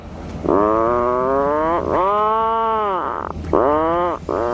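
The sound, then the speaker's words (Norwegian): A flock of puffins sitting and brooding at their nesting cliff, heard as a few long, drawn-out groaning calls one after another, loud, with a steady hiss of wind or surf behind them. “her skal dere få høre en flokk med lundefugler der de sitter og ruger i fuglefjellet sitt.”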